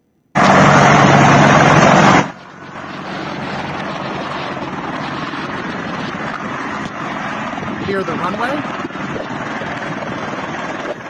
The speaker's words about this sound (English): This is the United States, I guess this would be Army at this point, to be Black Hawk helicopters. Watch how the helicopters are now clearing the people in front of the plane, doing low flybys to try and clear the runways.